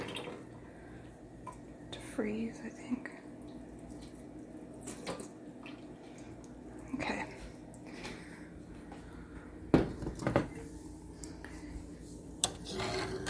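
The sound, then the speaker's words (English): Water pours and splashes from a container of cooked food into a sink in an uneven, sloshing stream as it is partly drained, leaving some water in, with a few sharp clunks and a person speaking briefly over it. “Just gonna drain it a little bit, but I'm gonna leave some of the water in because it'll make it easier”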